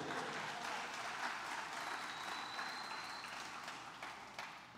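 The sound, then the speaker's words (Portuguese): Sustained applause from an audience clapping for Jesus, a dense, even wash of many hands clapping at steady loudness throughout, with a faint high tone briefly sounding over it. “Você pode dar um glória e um aplauso a Jesus aí?”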